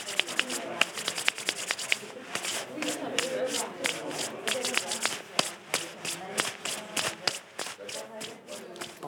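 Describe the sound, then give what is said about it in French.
Dry, brushing friction from palms rubbing together, a steady run of quick scratchy strokes with sharp little ticks scattered through, moderately loud and continuing for several seconds with no voices. “Tu pourrais me faire écouter le frotte, frotte, frotte, frotte”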